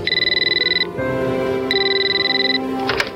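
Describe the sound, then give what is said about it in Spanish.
A telephone rings in a house with a rapid trilling electronic bell in two close bursts, loud, over a low steady hum, with no one speaking. “Pero justo cuando los tres estaban a punto de salir de la casa, sonó el teléfono.”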